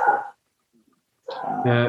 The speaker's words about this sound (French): D'ailleurs, je, pense que c'est le, chien de, Jérôme qui est en train de d'hurler à la mort devant le match.